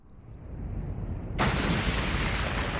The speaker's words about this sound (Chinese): 大地轰隆隆的摇晃，这是一场剧烈的地震。随着轰隆隆的声响，大地裂开了